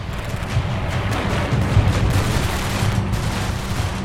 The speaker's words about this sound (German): Man hörte Flieger herankommen und am Boden ratterten Fliegerabwehrgeschütze los. Die Flugzeuge kamen im Tiefflug herab und griffen mit ihren Maschinengewehren an.